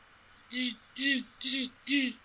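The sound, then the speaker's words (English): A voice imitates MRI scanner noise as a quiz buzzer sound, with four evenly spaced, loud buzzing bursts, each about half a second long, mixing a low hum with a harsh hissy rasp, with short gaps between. “That's the sound of the MRI.”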